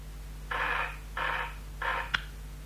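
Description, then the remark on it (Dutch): A telephone rings in three short, evenly spaced bursts, followed by a sharp click as if the receiver is picked up, all over a steady low electrical hum. “Dus begaf ik mij naar de eerste beste telefoon.”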